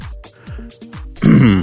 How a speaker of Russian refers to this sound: Я закашлялся. А, хорошо, тогда не кашли больше.